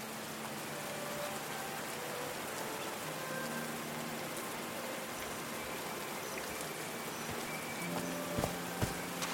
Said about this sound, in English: These drops of rain are so refreshing. Feels really good.